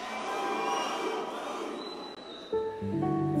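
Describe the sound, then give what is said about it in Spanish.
A group of men in an audience shout "au, au" together in unison, a loud, rough, drawn-out chant rising near the end after a stretch of noisy crowd murmur. “Bien, hombres, tú no vas a gritar, tú vas a hacer, au, au. Tres veces, ¿ok?”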